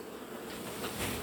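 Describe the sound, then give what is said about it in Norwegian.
A steady, dense hum of many honeybees buzzing together at an open hive as they move about working, many with their heads in the cells; a continuous droning swarm sound that swells slightly toward the end, with no voices. “Ser du her de der rusler og går og jobber. Her ser det ut som det er, det er veldig mange som står med hodet inni cellene.”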